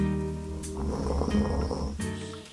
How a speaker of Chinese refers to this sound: 世界变得好安静，我的耳朵只听到下雨滴滴答答的声音。